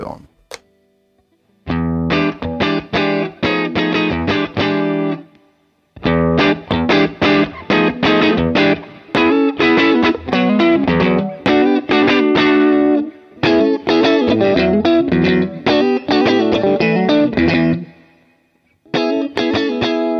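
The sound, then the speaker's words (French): An electric guitar plays through the blues breaker side of a two-sided overdrive pedal, set with volume at maximum and treble at the middle, strummed chords and short riffs in bursts with brief pauses, warm and crunchy with sustained harmonics, fairly loud throughout. “Je vais revenir sur le réglage où je faisais avant, c'est-à-dire avec le volume au taquet, et je pense que le, le treble était au, niveau, au, milieu, et on va écouter le, l'autre côté de l'autre côté de la pédale, donc le côté blues breaker.”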